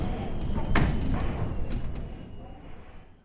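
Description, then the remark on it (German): Knocking on a wooden door: one sharp, loud knock followed by two fainter ones, set against a steady, heavy low rumble that fills the background. “In einer stürmischen Novembernacht, so wird erzählt, klopfte ein hochgewachsener Herr mit schwarzem Bart und einem feinen langen Mantel an ihre Türe.”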